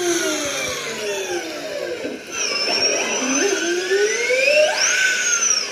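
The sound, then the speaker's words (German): High-pitched electric whines from Formula E electric race cars during a race sweep up and down in pitch as several vehicles pass in quick succession, loud and continuous, with layered tones overlapping and no talking. “ihr, ihr könnt das aber jetzt, denn so klingt der Sound beim Rennen mit Elektroautos.”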